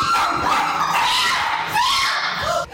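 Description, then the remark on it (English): A dog named Cushy barks and yelps in a continuous, insistent stream of high, whiny calls, fairly loud, with no pauses and no talking, trying to warn its owner practicing guitar that a hawk has flown in. “Uh uh Hey, no barking.”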